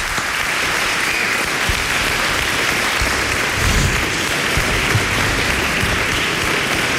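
Sustained applause from a crowd fills the whole stretch, a dense, steady patter of many hands clapping at once, loud, with no voices standing out.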